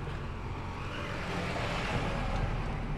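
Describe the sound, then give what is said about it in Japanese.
A steady, heavy rumble of traffic fills the scene, with low engine drone from trucks and dump trucks passing continuously on an island along a river where there is a factory, no voices present. “トラックやダンプカーなど、まあ、車の往来は多いですね”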